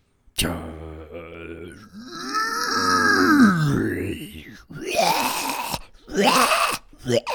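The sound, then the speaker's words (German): A voice imitates zombie groans like those of the zombies in the video game Dying Light: drawn-out, guttural moaning that rises and warbles, followed by rougher, raspy growls and breathy grunts, loud and continuous with no words. “Das klang wie die Zombies in Dying Light.”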